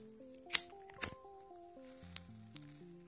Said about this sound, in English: I'm gonna start the day off with my wake and bake as you can hear it right now.